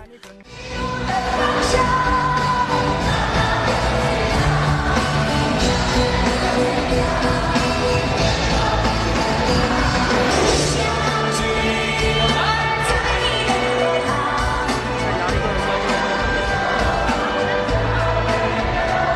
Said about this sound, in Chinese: 在演唱会中段，二人开始带节奏，与观众互动大合唱，一波接着一波，开启全民卡拉 OK 的狂欢模式。